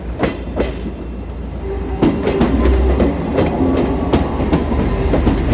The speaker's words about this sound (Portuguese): Exatamente 5 minutos depois passa o comboio.